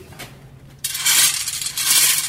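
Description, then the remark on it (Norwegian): A dense, continuous metallic clattering of hundreds of small steel balls tumbling and clinking together inside a rotating drum. They grind pigment down to a very fine powder for about an hour. Loud, with no voices. “Her ligger hundrevis av sånne stålkuler som knuser pigmentet ned til eh, supermel.”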